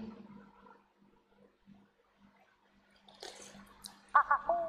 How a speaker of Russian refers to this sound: Открываем водичку.